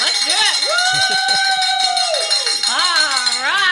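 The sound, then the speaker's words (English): A hand bell, rung with gusto in celebration, clangs loudly and steadily for several seconds, a bright metallic jangle with shimmering high overtones, while voices whoop and cheer over it. “we get to pick up the bell and ring it once”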